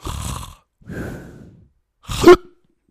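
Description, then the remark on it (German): A voice imitates a man snoring: two drawn-out, raspy breaths followed by a sudden, louder hiccup-like gasp that cuts off abruptly, then silence. “Aber in dem Moment, auf einmal hat er so wie so einen Schluck auf”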